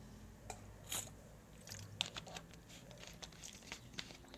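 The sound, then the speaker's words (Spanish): Mouth sounds of a speaker taking a quick sip of water before reading Hebrews chapter 10: soft wet clicks and a few gulps scattered over several seconds, with no talking. “Vamos a leer, dice, perdón, un poquito de, lubricante, agua.”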